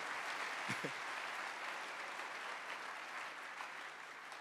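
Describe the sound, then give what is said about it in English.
An audience claps their hands, a dense, steady wash of applause that holds at an even level throughout, with a couple of low thumps early on and no speech over it. “Oh, I don't like your hand clap today.”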